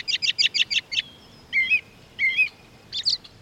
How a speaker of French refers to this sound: Suivi du rire moqueur d'une citelle à poitrine blanche. Puis du piaillement cristallin d'un cardinal rouge. Et dans la seconde qui suit, des vocalisations véhémentes d'un merle d'Amérique.